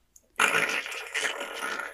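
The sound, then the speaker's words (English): A sudden, loud creaking groan like a straining tree, a raspy, drawn-out sound that starts abruptly and holds steady for well over a second, with no voices. “like the creaking of a tree”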